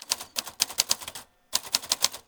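typewriter keys typing

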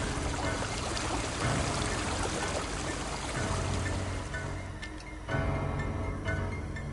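flowing river water

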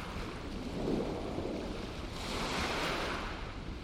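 ocean waves breaking

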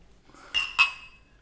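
beer glasses clinking

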